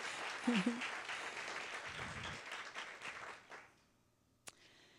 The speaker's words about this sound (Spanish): Si le va a dar un aplauso, déselo, pero grande. Y es a Él.